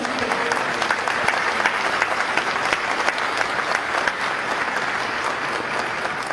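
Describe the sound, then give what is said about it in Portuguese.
A sustained round of audience applause for the women on International Women's Day, many hands clapping steadily and densely for several seconds at an even loudness, with no voices standing out over it. “E os homens, por favor, vamos aplaudir cada uma delas, porque elas merecem.”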